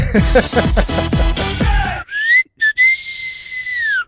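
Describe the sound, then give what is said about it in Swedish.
A brief whistled fanfare: a couple of short, clipped notes followed by a long, sustained sliding tone, loud, coming right after a dense burst of bright, busy sound. “Fanfar!”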